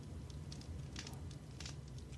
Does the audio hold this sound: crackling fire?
yes